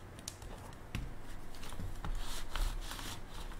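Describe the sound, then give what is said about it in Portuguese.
Quiet rubbing and rustling over a keyboard as spilled water is wiped off it, with scattered soft clicks and taps as keys are pressed, no voices. “Ah, gente, só um pouquinho que eu com a água que eu molhei meu teclado. Só um minutinho.”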